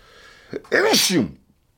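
A single loud human sneeze: a short sharp intake of breath followed by an explosive, strained burst lasting about half a second, then quiet.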